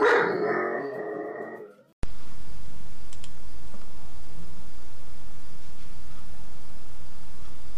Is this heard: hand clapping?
no